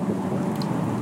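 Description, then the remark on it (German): A steady, low rumble of trucks and cars passing on both sides of a spot beside a canal, a dense continuous roar of traffic noise with no voices and no clear breaks. “Ihr könnt es im Hintergrund hören, Gepolter, Geknatter, Geschepper, LKW und Autos von beiden Seiten umzingelt am Kanal.”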